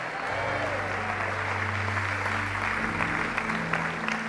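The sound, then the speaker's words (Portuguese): An audience applauds the Lord during a sermon, a steady dense wash of clapping filling the room, with a low sustained musical tone humming underneath throughout. “Alguém pode dar um aplauso ao Senhor aqui neste lugar?”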